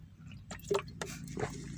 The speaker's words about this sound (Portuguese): Tomar água de novo aqui.